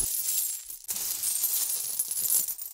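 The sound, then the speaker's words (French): Coins clink and jingle steadily as pockets are stuffed with them, a bright, metallic rattling that stops briefly and then resumes in a busy, continuous shuffle. No one speaks. “Le soldat remplit ses poches d'argent et chercha vigoureusement le briquet.”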